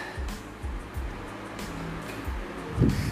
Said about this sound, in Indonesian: Sorry ya, itu ada suara kipas karena kita hemat listrik, jadi kita pakai kipas.